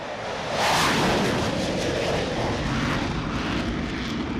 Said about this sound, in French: Sur 75 mètres, les deux catapultes propulsent les rafales à 250 km/h. Un nuage de vapeur recouvre le pont à chaque passage.